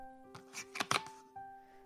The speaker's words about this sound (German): Mein Vater krabbelt halb unter den Baum und beginnt damit, die Geschenke zu verteilen. Das sorgfältig gefaltete Papier knistert, als die ersten Schleifen fallen.